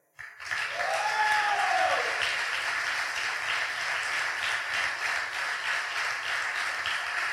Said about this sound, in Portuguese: Bate, bate palmas aí.